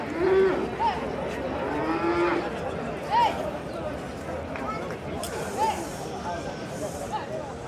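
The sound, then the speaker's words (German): Young bulls being lured out of a truck at a village bullfighting festival in Valdaracete, about 60 km from Madrid, bellow several times in short, rising calls spaced a couple of seconds apart, loud over a steady background of outdoor commotion. “Die Becerros werden aus dem LKW gelockt.”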